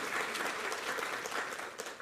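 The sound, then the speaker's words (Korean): An audience at a Sunday church worship service claps together in steady, dense applause, giving thanks and glory to God, a continuous crackling wash of many hands at even loudness throughout, with no voices standing out. “할렐루야 우리 하나님께 감사와 영광을 박수를 드리겠습니다.”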